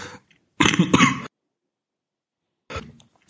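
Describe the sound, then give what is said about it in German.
A loud cough bursts out from a speaker who briefly has to cough while talking, followed after a short silence by a softer throat-clearing cough, with no talking. “sorry, da musste ich kurz husten”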